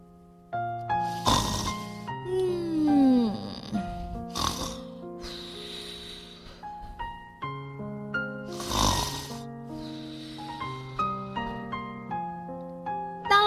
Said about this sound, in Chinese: 老鼠，你在打呼噜！